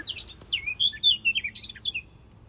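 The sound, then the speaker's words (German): A small bird sings, a quick run of bright chirps and warbling whistles that rise and fall over about two seconds, with a faint low background hum and no talking. “Gesingst noch einmal, liebes Vogel, bitte.”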